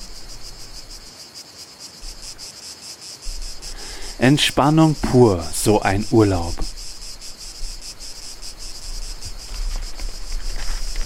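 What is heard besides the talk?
cicadas chirping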